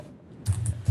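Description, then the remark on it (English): Someone types a long film title on a computer keyboard to add it to a watch list, a short burst of three or four clacky keystrokes after a moment of quiet, with no one speaking. “I was gonna say I'm like you're typing a lot, but it's a pretty long title, I guess.”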